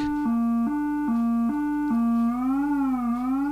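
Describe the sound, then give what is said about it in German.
A steady, buzzy synth tone with square-wave vibrato modulation, stepping between two nearby pitches in an even rhythm, then gliding and wobbling smoothly up and down, sounding alone and fairly loud throughout. “Das ist, ähm, und hier hört man eigentlich auch, wie die Wellenformen aussehen am besten, weil das ist jetzt ein, ein steigender Wellenform, der steigt an, fällt wieder ab, ein fallender Wellenform, äh, fallender Sägezahn, Rechteck.”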